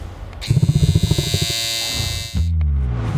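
An electric shaver, the Panther Clipper, buzzes loudly, stuttering in quick pulses at first before settling into a steady whine, then cuts off and leaves a low hum behind.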